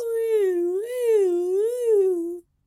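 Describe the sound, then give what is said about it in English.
A loud human voice mimics an ambulance siren, a sustained wail that sweeps up and down in pitch a few times over about two seconds before stopping abruptly. “That's my impression of an ambulance.”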